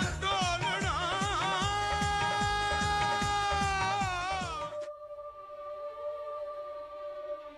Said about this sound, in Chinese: 来来，这就是王老师跟孔老师的出场 BGM 了啊，观众朋友们。